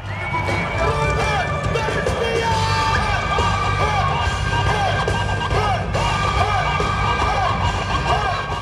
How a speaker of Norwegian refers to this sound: slik hørtes det ut da Robert entret ringen i et fullstappet Terningen-arena.